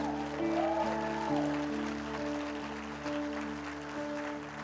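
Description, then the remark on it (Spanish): An audience applauds in a steady, dense wash of clapping that holds for several seconds, with sustained keyboard-like musical tones running underneath. “Fuerte el aplauso del Señor ahí por él.”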